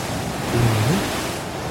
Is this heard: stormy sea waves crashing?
yes